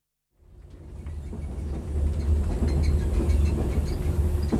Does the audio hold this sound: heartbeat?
no